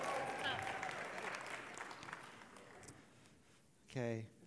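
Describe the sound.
A church audience applauds with a dense, steady wash of clapping that gradually thins and fades over several seconds, after which a single voice begins to speak.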